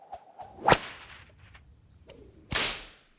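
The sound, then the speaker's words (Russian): Two sharp cracks of a special self-flagellation whip lashing a person's own back, the first around the middle and a second near the end, each a bright snapping lash preceded by a brief swish, with no talking. “Мое настроение сразу падает ниже плинтуса, я достаю из шкафа свой специальный хлыст для самобичевания и начинаю хлестать им свою спину.”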